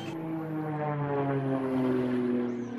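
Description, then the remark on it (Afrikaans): A propeller aerobatic airplane, an Esbag 342 flown by Barry Ellis in an aerobatic competition, drones steadily overhead, its engine note sliding slowly downward as it passes, loud and continuous for the whole stretch with no voices. “Barry Ellis neem deel met sy Esbag 342 vliegtyg.”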